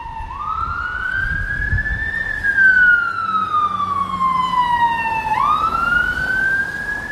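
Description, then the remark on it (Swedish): An emergency vehicle siren wails loudly, sliding slowly up in pitch, then gradually down, before sweeping up again, over a low rumble of traffic. “Blåljus, kom ihåg, ingenting som EU finansierar.”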